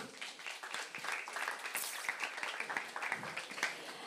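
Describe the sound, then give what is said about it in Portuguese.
A crowd claps steadily for several seconds as applause for Jesus at a religious gathering, a dense, continuous patter of applause with scattered voices and faint cheers mixed in, fairly loud. “Deus salve os palmas para Jesus.”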